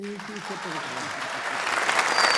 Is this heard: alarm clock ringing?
no